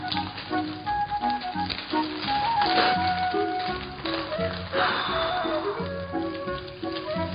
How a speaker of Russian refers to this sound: она разожгла огонь и села у низкого, сложного из валунов очага.